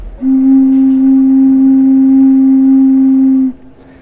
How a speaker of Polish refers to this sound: Jak na fletni pana prawie zagrałem. Tylko, że jeden dźwięk.